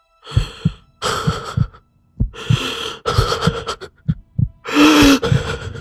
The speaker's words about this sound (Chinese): 心脏仿佛就在嗓子眼儿的位置疯狂的跳动着。